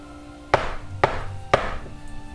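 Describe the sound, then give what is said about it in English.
Three firm knocks on a door, evenly spaced about half a second apart, each a sharp hollow thud with a brief ringing decay, and no voices. “a knock at your door.”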